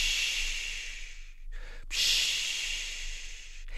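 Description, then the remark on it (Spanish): A voice imitates the sound of the sea heard in a seashell brought from Veracruz, with long, breathy "shhh" hisses: two sustained waves of airy noise split by a brief pause, steady, with no talking. “A Triclinio le gustaba mucho escuchar el sonido del mar en el caracol que le había traído su tía Lupe desde Veracruz.”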